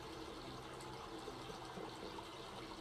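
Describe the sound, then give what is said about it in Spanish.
Steady, continuous rush of flowing river water, a dense even wash of sound with small bubbling variations and no voices, moderately loud throughout. “Encuentro un lugar en donde sentarme para sumergir mis pies en el agua.”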